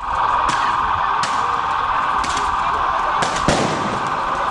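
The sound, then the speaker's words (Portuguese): Several sharp rubber-bullet gunshots ring out at irregular intervals, one pair close together, over a loud, steady wash of crowd noise during an outdoor street clash between the municipal guard and rioting revelers in Curitiba. “Dois cinegrafistas foram atingidos por tiros de balas de borracha.”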